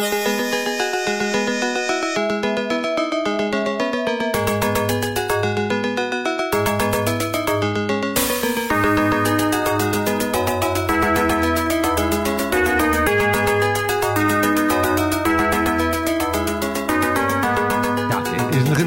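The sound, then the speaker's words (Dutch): Bright, synthetic FM-style computer music from a 1988 Sound Blaster sound card in a computer, with a bouncy bass line and stacked chiptune melodies, playing continuously and loudly with a steady rhythm, no voices. “En toen kwam 1988 en de soundblaster op een computer en die klonk zo.”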